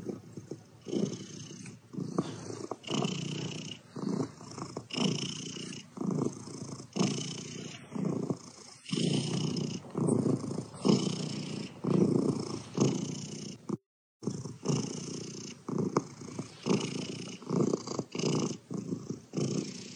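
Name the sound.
cat purring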